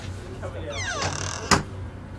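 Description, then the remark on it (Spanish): An office door is pulled shut, a brief descending squeal of hinges or runners ending in one sharp, solid latch click over a quiet hum. “Cierra la puerta.”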